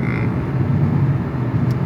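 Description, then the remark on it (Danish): Steady low rumble of a car interior while driving through Sjælland, Denmark, a constant deep road and engine drone with a faint hiss above it, continuous and unchanging, with no voices. “Normalt har du studiet for dig selv, men nu sidder vi her i en bil på vej igennem øh, det er Sjælland.”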